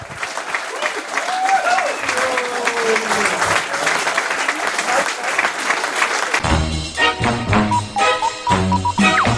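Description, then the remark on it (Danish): Loud live audience applause for guests Andreas Bo and Valdemar Pustelnik fills the first six seconds, dense and continuous clapping with some cheering, then gives way abruptly to a bright musical jingle. “Giv en stor hånd til en cirkusprinsesse og en akupunktør.”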